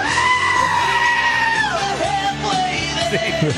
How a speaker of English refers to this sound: And it was the goats screaming like humans. I loved that though.